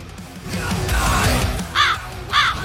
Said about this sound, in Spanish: Cuervos que sobrevuelan,